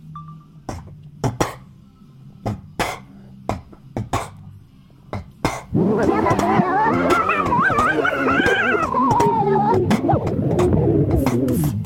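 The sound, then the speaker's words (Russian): Vocal beatbox recorded on a voice recorder: a run of sharp, punchy mouth-made kicks and clicks in a loose rhythm, then a loud, continuous wavering vocal buzz, like a voice imitating a revving engine or screeching tires. “Давайте просто сейчас запишем ваш потрясающий битбокс на диктофон, а на кастинге вы включите запись и прочитаете рэп.”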